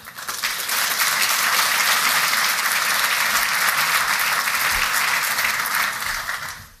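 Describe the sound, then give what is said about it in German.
An audience at a BVL event applauds steadily for Major General Gerald Funke and host Boris Felgendreher, a dense wash of many hands clapping at an even, loud level for several seconds before tapering off at the very end. No one speaks over it. “Einen herzlichen Applaus für Generalmajor Gerald Funke und unseren Host Boris Felgendreher.”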